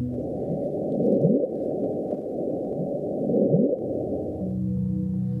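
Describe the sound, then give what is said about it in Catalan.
A deep, rumbling underwater hydrophone recording of the 'Bloop' ocean sound, detected in 1977 near Point Nemo: a steady low roar with two rising, swooping tones, one early and one later, and no voices. “Això es coneix com blob.”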